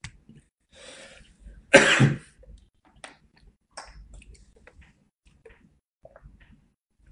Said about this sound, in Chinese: 听我咳嗽就有人发多喝热水啊，赶快喝一口啊！